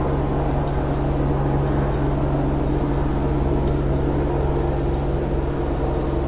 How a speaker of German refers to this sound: Aber es ist ein Hubschrauber.